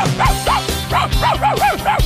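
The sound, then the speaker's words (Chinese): A dog barks about seven times in quick, even succession, each loud bark rising and falling in pitch like a yappy whine, over a steady low background tone. “哇哦，汪汪汪汪汪汪汪！”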